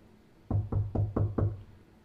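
Five firm knocks by the boat's captain on the wooden door of Jonah's room on a boat, in a quick, even rhythm, resonant, followed by quiet.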